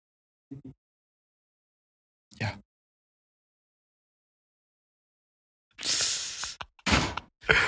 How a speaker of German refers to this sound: Oh, hier geht eine Tür auf.